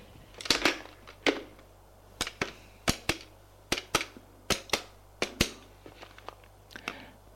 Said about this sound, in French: Elle a son bureau. Elle fait un numéro de téléphone.